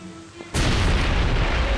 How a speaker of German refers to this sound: Zur festgesetzten Minute fliegt die Brücke in die Luft. Die Explosion hat man gehört, aber wir wussten ja nur nicht, wie der Erfolg war. Die Eisenbahnbrücke wird vollständig zerstört, die Straßenbrücke beschädigt.